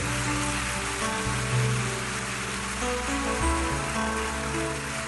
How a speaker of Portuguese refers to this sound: Aplauda ele bem forte